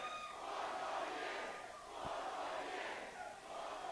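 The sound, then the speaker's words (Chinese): A large crowd of campaign supporters chants the slogan "four more years" in unison, the roar of many voices surging and easing in repeated waves, loud and steady throughout with no single speaker standing out. “人们在大喊：“再干四年，再干四年。”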